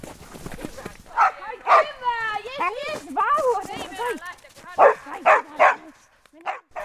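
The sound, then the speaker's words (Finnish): Almi, a herding dog, barks while herding sheep: short sharp bursts, a couple of barks, then a stretch of high whining yelps, then a quick run of three loud barks and one more. “Näin siinä Almi paimensi lampaita.”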